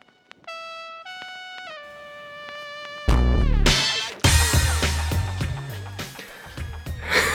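A Mandopop rap song from a 1999 album plays: it opens with clear, sustained synth notes stepping downward, then about three seconds in a loud, bass-heavy beat crashes in and the full track drives on.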